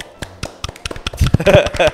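A few people clap their hands, starting with scattered single claps and quickly building into a denser burst of fairly loud applause.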